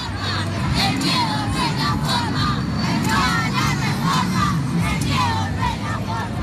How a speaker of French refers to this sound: Non à la réforme, la peur n'est pas la solution, scande la foule. Quasiment tous portent un drapeau, une casquette ou un t-shirt rose, la couleur du collectif No à la réforme, qui mène la contre-campagne.